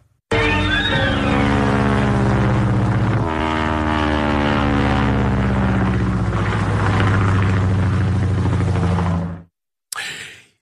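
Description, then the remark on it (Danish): A Tachikawa Ki-36 propeller aircraft drones loudly and steadily for about nine seconds, its engine pitch shifting slightly as it passes, then cuts off abruptly. “Vi hører her en Taka Tachikawa KI-36, altså en flyvemaskine, som i de allieredes kode bliver kaldt for en IDA.”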